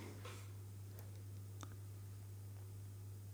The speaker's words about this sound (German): Er tippt, äh, tippt auf seinem Handy rum. Ich kommentiere jetzt einfach mal, was er macht. Also er hat sein iPhone rausgeholt, was ziemlich zerstört aussieht.